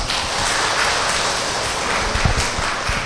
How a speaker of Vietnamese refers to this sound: quý vị cho cô một tràng pháo tay đi